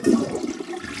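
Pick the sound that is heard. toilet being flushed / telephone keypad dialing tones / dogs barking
toilet being flushed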